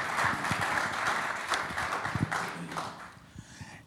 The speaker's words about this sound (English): Come on up and join us. Um, now, let's give him a round of applause, guys. Yeah.